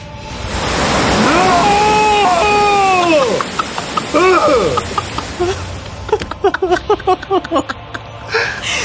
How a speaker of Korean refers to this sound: 어마무시한 위력의 폭포수 물줄기를 한 몸에 다 받아내시는 마치 이 구역의 주인공은 나다 하는 걸 몸소 표출하고 계신 분들 바로 이름하여 정기권 선배님들이었습니다. 무서워, 무서워. 어, 쎄, 쎄. 너무 쎄.